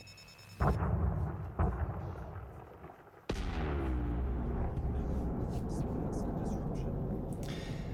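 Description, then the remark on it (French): An asteroid impact sound effect: low rumbling builds with a couple of heavy thuds, then a huge explosive crash gives way to a long, loud roaring rumble. “Un astéroïde, exactement.”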